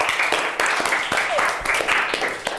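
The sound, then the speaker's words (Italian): An audience breaks into steady, dense applause for Master Yoda of Star Wars, many hands clapping at once in a loud, even wash that holds throughout, with a few voices mixed into the noise. “Un grande applauso.”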